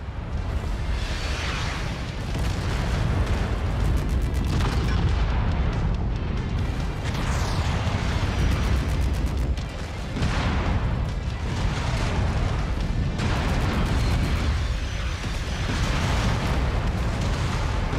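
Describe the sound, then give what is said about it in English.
Incoming heavy artillery explosions roll in one after another, deep rumbling booms with crackling debris that keep the whole stretch loud and dense, with no voices. “Okay, I'm assuming that's the artillery coming in that I can hear.”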